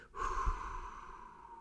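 A single long, steady breath, soft and airy with a faint whistling tone, sustained evenly for over a second with no talking, part of a paced breathing exercise: count four in, hold four, release over eight.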